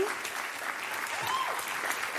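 Steady audience applause greets performers at the Oyun in Berlin-Neukölln. Many hands clap in a dense wash at an even, fairly loud level, with a few faint voices and whistles mixed into the crowd noise.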